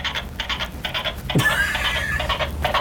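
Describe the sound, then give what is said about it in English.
A toy stick horse's sound effect gives a whinnying neigh, a fluttering, rapidly pulsed call that carries on for a couple of seconds, clear with no one talking. “And he has a little sound effect.”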